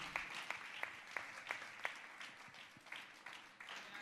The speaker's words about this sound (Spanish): Que el Señor nos bendiga. Denles fuerte ese aplauso de alabanza a nuestro Dios en este día, mi hermano.